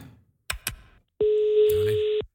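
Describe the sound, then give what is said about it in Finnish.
Two quick clicks, then a steady, loud telephone line tone that holds for about a second before cutting off, with a faint murmur of voice briefly underneath, while calling a Christmas food help line. “Joo, kokeillaan soittaa.”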